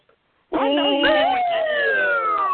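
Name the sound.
police siren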